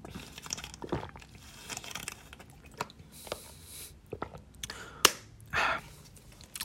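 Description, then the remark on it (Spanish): Someone drinks water: soft crinkling and clicking from a plastic bottle, a sharp snap, then a brief burst of swallowing sounds, all fairly quiet with no talking. “Déjenme tomo agua porque se viene el libro pero el señor libro.”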